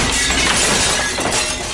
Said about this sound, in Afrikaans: Hy val in die kas en al die borde breek.